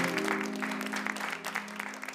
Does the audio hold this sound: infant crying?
no